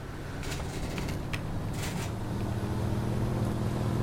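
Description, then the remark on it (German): A steady, droning Ferrari sports car engine in a video game rumbles continuously at a moderate level, with a few brief hissy bursts layered on top and no voices. “Krasser Ferrari, ne?”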